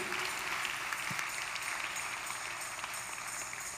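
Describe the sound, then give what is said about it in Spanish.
An audience claps steadily for several seconds, a dense, even patter of many hands with no voices over it, holding at a fairly constant, moderate level before easing slightly at the end. “¿Pueden dar un aplauso por eso?”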